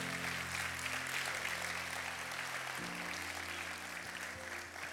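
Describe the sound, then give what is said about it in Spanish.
A large church audience claps steadily and densely for several seconds, applauding the Lord during a sermon, while sustained low keyboard or organ chords play underneath and shift partway through. “Vamos, denle un aplauso fuerte al Señor.”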